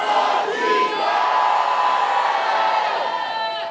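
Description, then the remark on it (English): A large crowd shouts "hallelujah" together during a Christian sermon in a loud, sustained roar of many overlapping voices that continues steadily for several seconds without a break. “Shout hallelujah! Shout hallelujah! hallelujah”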